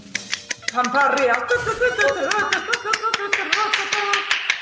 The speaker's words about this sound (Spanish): Sí, ya, paren los aplausos.